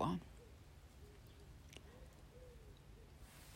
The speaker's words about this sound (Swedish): Jag sitter här i solen i Arild och det är alldeles vindstilla i denna hörnan. Fåglarna kvittrar. Det är förmiddag den 4 mars 2022.